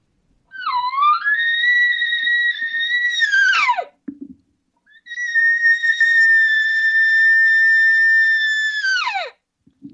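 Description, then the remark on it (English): Two long, high, whistling bugles from a cow elk, not a bull, made rapidly one after another, each rising to a steady squeal and dropping off sharply at the end, with no big roar. Loud, separated by a short pause. “that's not a bull. This is a cow doing. It. She did it so fast and so many times in a short period of time”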